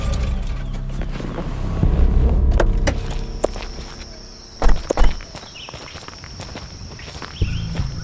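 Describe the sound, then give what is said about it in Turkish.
A car idles and rolls to a stop with a low engine rumble, parking in a villa's parking area beside a white vehicle, followed by a couple of sharp thuds like a door closing, then soft footsteps on pavement. “Arabamı villanın park yerine beyaz bir aracın yanına bıraktım.”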